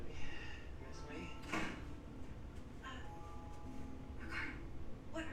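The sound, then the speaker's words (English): A door is opened, with a few short knocks and a creaky latch sound spread across several seconds, while faint voices carry on in the background; a woman answers the door at somebody else's house and her boyfriend lets himself inside. “Why are you opening Answering the door? door.”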